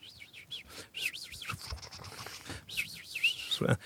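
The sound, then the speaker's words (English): A person whistles and warbles in bright, wavering chirps and trills, imitating Amazon rainforest bird calls, with repeated looping up-and-down calls. “The Amazon. You're really good at it.”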